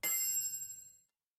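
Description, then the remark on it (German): A pin drops in a cinema sound advertisement: a single bright metallic tink rings out clear, then shimmers away into silence in about a second. No voices. “We can take you from a pin drop”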